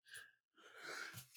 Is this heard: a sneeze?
yes